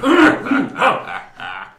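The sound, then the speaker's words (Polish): A few short, voiced throat-clearing grunts in quick succession, fairly loud, with brief pauses between them and no words spoken. “A co wy tam tak chrząkacie?”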